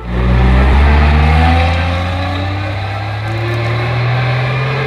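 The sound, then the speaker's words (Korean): A bus engine rumbles loudly and climbs steadily in pitch as the bus, carrying a group of people to a film shoot, pulls away, a continuous heavy drone with no voices. “저는 그냥 모인 곳에서 촬영하는 줄 알았는데 근데 다짜고짜 버스에 태우더니 출발.”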